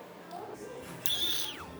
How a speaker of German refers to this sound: Hast du gepfiffen?